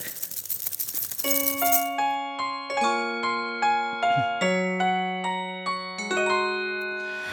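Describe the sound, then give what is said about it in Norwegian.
A song intro of bells: a brief jingly shimmer, then a steady melody of clear, ringing struck tones, each chiming and fading under the next. No voices. “Da kommer introen først, med bjeller.”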